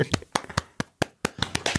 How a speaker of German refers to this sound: Ja, also auf jeden Fall schon mal ein extra Applaus. Ja. Ich würde jetzt auf den Knopf drücken, aber ich liege, wie gesagt, im Bett, kann auf gar keinen Fall. Warte, dann klatsche ich.